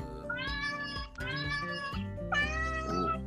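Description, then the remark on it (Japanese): A cat meows loudly and insistently, three drawn-out, rising-and-falling calls in quick succession, with no talking. “おすごいね、なんか。猫さんめっちゃ気合入ってるんだけど、どうしたのね、気合も入りますよね。”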